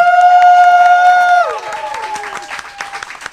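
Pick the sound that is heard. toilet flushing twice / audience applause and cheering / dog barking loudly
audience applause and cheering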